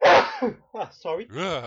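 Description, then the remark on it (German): A single loud sneeze bursts out at the very start, followed right away by a few short spoken words from a couple of voices. “Ah, Gesundheit.”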